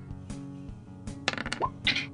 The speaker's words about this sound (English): And now I'm going to need a d6 roll, and you really want to roll low. Hold on, let me change my dice first because one, one, now I'm nervous.